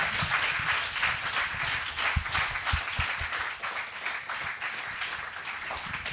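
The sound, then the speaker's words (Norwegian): A festival audience applauds steadily for about six seconds in honour of a Norwegian webcomic creator, a dense wash of many hands clapping at once, fairly loud, with no talking over it. “Skal vi klappe for henne òg? Ja, vi klapper for henne.”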